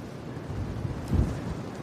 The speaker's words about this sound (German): Sturm.